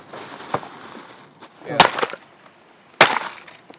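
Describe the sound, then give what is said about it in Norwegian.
Ice being crushed at a Nordic religious ceremony, in sharp, crunchy bursts: a small crack, then two loud splintering crunches about a second apart, with a faint hiss between them and no talking. “Is knuses, og fakler tennes i en sirkel.”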